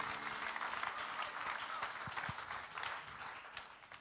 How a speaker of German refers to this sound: Lasst uns Gott nochmal einen riesen Applaus geben